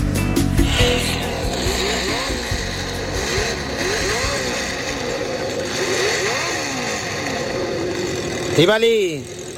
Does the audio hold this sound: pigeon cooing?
no